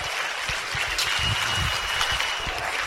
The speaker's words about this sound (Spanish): Fuerte el aplauso para mi esposa. Alegría. Qué ánimo.